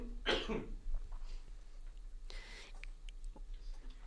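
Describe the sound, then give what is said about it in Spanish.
A sharp, harsh cough bursts out as a person chokes on something caught in the throat, followed a couple of seconds later by a second rougher, throat-clearing cough, with faint shuffling in between. “¿Se me atoró algo rapidísimo?”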